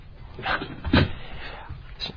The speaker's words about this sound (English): I just heard a chair move